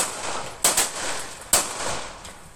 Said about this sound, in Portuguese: A gravação mostra a mulher já do lado de fora do carro no momento da tentativa de assalto. Enquanto ela tenta argumentar com os assaltantes, tiros são disparados.